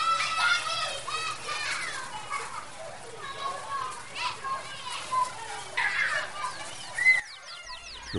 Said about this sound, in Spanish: pájaros revoloteaban cantando alrededor de los niños